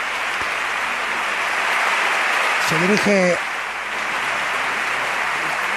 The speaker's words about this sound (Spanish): recogen en pie los músicos de la banda municipal la ovación de Sevilla, ahí se levanta el pregonero, primera ovación de ánimo para Enrique Casella, se echa la mano derecha al corazón,